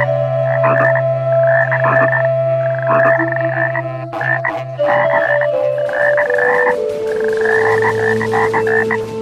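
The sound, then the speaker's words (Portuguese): Ten frogs near a river in a forest croak steadily in a loud chorus, with repeated rhythmic pulsing calls layered over a sustained low drone and higher buzzing trills, no voices present. “Era próximo de um rio, então aí você consegue aí que 10 rãs venham junto de você”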